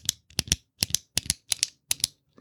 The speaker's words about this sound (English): It didn't sound like a pen clicking. It just sounded like a clicking, like a tapping, almost like. A... Nope, that sounds like a pen hitting a desk.